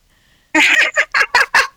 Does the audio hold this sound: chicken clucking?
yes